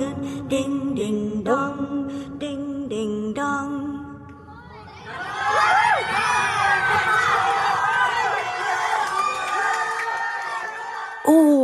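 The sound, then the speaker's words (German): A short, simple melody plays for a few seconds, then a loud, dense burst of crowd cheering erupts, full of excited children's shouts and whoops that carry on until the end. “Oh, was für ein Jubel.”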